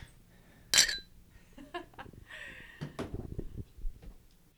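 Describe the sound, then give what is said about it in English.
Empty beer glasses clink together once in a bright, sharp toast, followed by softer knocks and handling clatter as they are set down. “shall we cheers our empty glasses let's do it oh, Cheers to a good beer.”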